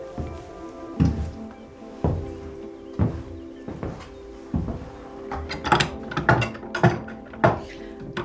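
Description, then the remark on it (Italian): Heavy wooden thunks from a grand mue, a large knife fixed at one end to a wooden drawer holding a hard loaf, chopping through the loaf, first at a steady pace of about one per second, then in a quicker burst of cuts. “faccio adesso il rumore che faceva la grand mue con la grand mue è un coltello grande che è fissato da una parte in un cassetto di legno e quindi in questo cassetto si poteva mettere la pagnotta dura e con questo coltello che era fissato si poteva”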